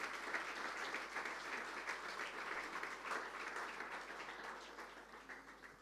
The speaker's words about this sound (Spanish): Amén, Señor. Amén. Fuertes aplausos de alabanza al Señor.